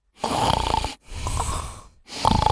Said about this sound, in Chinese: 打过去跟他媳妇儿聊天，聊了一会儿之后呢，听到有人打呼噜